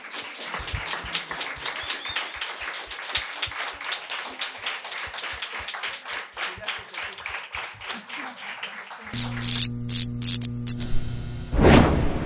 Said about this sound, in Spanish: Este aplauso para vos y hasta próxima.